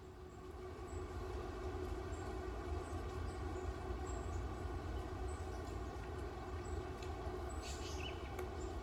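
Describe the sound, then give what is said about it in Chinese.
Sparse, thin, high-pitched chirps of warbling white-eyes come in short scattered bursts, faint against a steady, loud low rumble that continues throughout. “那种很细，叽叽叽叽叽叽，那个是绿袖眼的声音。”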